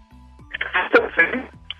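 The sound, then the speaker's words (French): A muffled, narrow-band voice of a caller from Ménil-Rouxelin in the Manche comes through a poor telephone line, thin and garbled, with brief crackly bursts over a faint steady hum. “alors, je sais pas, la, ligne téléphone est très mauvaise.”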